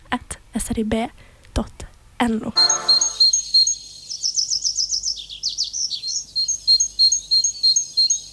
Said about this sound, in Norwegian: Det du hørte der, det var en eh, kjøttmeis.